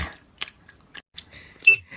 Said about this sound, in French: le son vraiment très, très fatigant que vous entendez, c'est … qui mâche sa gomme